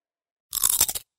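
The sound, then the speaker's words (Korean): A loud bite into a crunchy fruit snack, a half-second burst of crackling crunches with a few quick pulses, alone with no talking. “맛있다 소리까지 맛있다 색상까지 향기까지 식감까지 포장만 뜯으면 과일 그 이상의 맛 오감 만족 과일 스낵”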